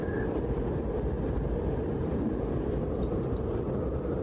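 A dense, unbroken roar of powerful hurricane wind, heavy in low rumble and holding steady for the whole stretch, with faint whistling gusts rising briefly near the end.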